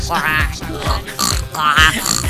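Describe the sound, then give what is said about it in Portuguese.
A person mimics a pig, letting out a quick series of nasal, snorting oinks in an uneven rhythm, fairly loud, with no other sounds around them. “Aff, que nojo essa história de olhinho de porco.”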